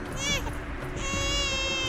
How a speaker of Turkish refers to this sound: Ağlama yavrum. Ağlama evladım. Şimdi elbiselerimin içinde ısıtacağım seni. Donma ne olur. Ölme ne olur. Bu çocuk donmak üzere.